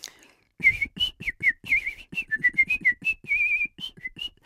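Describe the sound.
A person whistles a quick, chirpy bird-like tune imitating a generic bird rather than any particular species: a rapid series of short, high warbling notes with little trills, fairly loud, continuing for several seconds with no talking.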